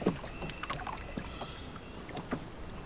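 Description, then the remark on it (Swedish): A motorboat with two men aboard drifts slowly toward a jetty, its low engine steady, with scattered knocks and water splashes along the way and no voices. “Vi ser hur motorbåten långsamt anlöper bryggan och hur den längre av dem står i fören med en tross i handen, färdig att förtöja båten så fort han befinner sig tillräckligt nära bryggan.”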